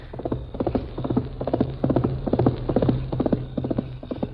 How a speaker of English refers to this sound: Golly, look at that horse run. Really fast, all right.